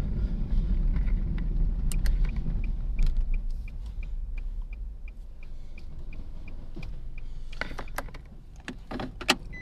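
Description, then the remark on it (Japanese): Steady low road-and-engine rumble inside a moving car, with a regular light ticking and occasional creaks and rattles from the cabin; no one speaks. “車あれですね運転してるとなんか危ないですね。”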